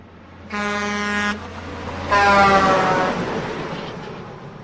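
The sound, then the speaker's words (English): A bus horn honks twice, two loud, brassy blasts about a second long each, separated by a short gap, with a low rumbling traffic background and no voices. “And oh, hey, a bus!”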